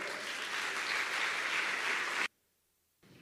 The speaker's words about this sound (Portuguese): Você pode dar uma salva de palmas ao Senhor?